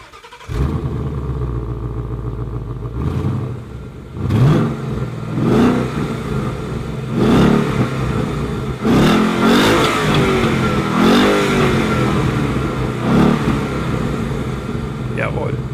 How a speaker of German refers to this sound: V8. Schöner V8-Sound. So muss das klingen. So muss ein Ford Mustang klingen.